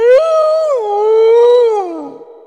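A single loud wolf howl, rising briefly then holding a long wavering note before sliding down and fading, with no other sounds around it.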